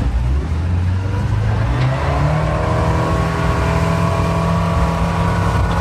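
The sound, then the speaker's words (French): A motorboat engine on a boat-licence practical outing near Aix-les-Bains, France, roars steadily and then climbs in pitch as it accelerates, a loud, continuous droning hum with rising harmonic whine and no voices. “Bon, on va accélérer là.”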